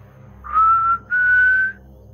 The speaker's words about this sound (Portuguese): Você faz esse assovio, ela começa.